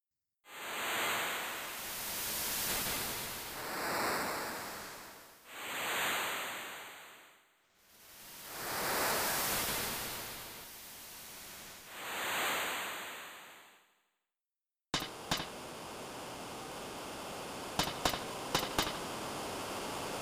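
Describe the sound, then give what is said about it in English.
Synthesized hissing noise, made with noise for beach scenes in video game music, swells and recedes in several slow surges, imitating lapping ocean waves, then gives way to a steady wash of static punctuated by a few sharp clicks. “for parts like the beach, you know, just kind of like in the birds and just kind of like the lapping waves”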